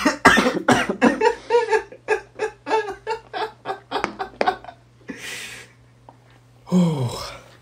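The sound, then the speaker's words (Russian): A loud bout of coughing: a quick run of rough, rhythmic hacks, then a couple of separate heavier coughs with short pauses between, ending in a strained gasp. “Сейчас я как раз покашлю, как идти.”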